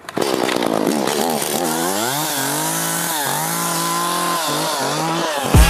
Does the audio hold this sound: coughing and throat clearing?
no